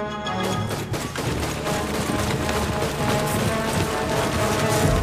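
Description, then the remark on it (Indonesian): A loud, continuous burst of rapid gunfire rattles on for several seconds, the shots blurring into a dense, crackling barrage with a steady droning layer underneath. “Sukitman kemudian tertidur, mesti sempat mendengar suara rentetan tembakan”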